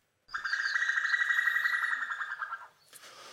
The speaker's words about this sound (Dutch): Dit is het geluid van mevrouw Koekoek. Dat is niet Koekoek dat hij roept, dat is voor de mannen. Mevrouw Koekoek roept.